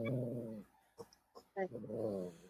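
A dog growls and whimpers, with a drawn-out low grumbling whine at the start and end and a few short yelping bursts in between; no one speaks.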